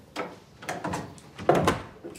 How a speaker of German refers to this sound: Julia schließt die Tür hinter sich.